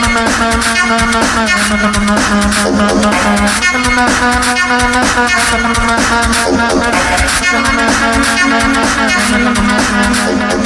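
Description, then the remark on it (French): One man's voice, recorded twice at two different pitches, holds sustained notes a harmony apart, looping steadily with a rhythmic pulse. The sound is loud and continuous, with no talking over it. “c'est une harmonie, il enregistre deux fois sa voix à deux tons différents pour créer cet effet.”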